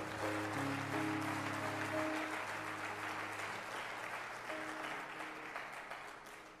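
A church audience breaks into sustained, dense applause to God from many hands, steady and full throughout, with sustained musical tones underneath at the start.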